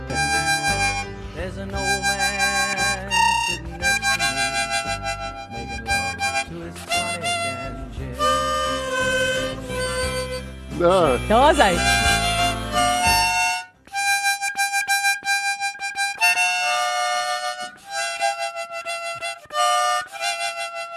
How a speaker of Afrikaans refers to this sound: het ek vir jou backfluitjie gebring, 'n mondfluitjie.